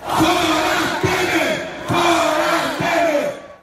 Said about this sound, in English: From his first week as president, he had to deal with crowds demanding he be removed from office, a chant that became common in Brazil.